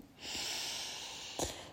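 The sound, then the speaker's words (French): A long, deep breath drawn in through the nose and mouth, a steady airy rush lasting over a second, fairly soft, with no talking. “Tu peux même t'étirer, bailler et prendre une grande inspiration”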